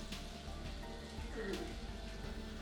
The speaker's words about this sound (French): La douche se poursuivait toujours, mais avec cette fois de nouveaux bruits bien plus précis. Apparemment, la politicienne n'était pas seule sous le jet d'eau chaude